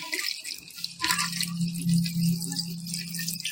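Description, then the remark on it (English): A drink with orange juice is poured back and forth between glasses to mix it, liquid splashing and trickling in a steady pour with a rising hollow tone, moderately loud, with no one speaking. “This is an old bartender trick. When you're at your tailgate, just pour it back and forth.”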